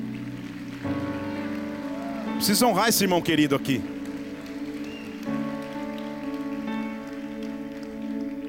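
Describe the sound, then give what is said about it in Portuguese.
A church audience applauds the Lord for a beloved church member in a steady patter of clapping that runs under a man speaking, with a sustained musical tone in the background and a louder vocal outburst midway. “Vamos aplaudir o Senhor por esse irmão tão querido aqui, gente.”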